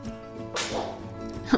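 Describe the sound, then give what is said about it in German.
A single sharp sneeze bursts out partway through, a short hissing blast over a low steady background hum, fading quickly with no talking. “Gesundheit.”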